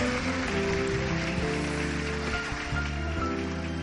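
A crowd applauds steadily for about four seconds, a dense, even wash of clapping that stays loud throughout, with a faint low tonal hum running underneath.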